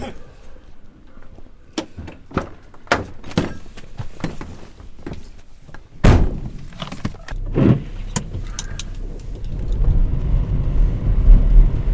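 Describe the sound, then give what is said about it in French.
Clicks and thuds of people climbing into a car for a short trip through the streets of Antine, a door slamming shut around the midpoint, then the low rumble of the engine starting and idling, with brief voices in the background. “voiture alors Tu es prêt à aller dans la chef sans toque mobile”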